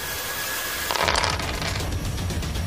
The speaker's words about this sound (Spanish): Tírame 5 dados amarillos. ¡Wow! Salió tírame un dado amarillo.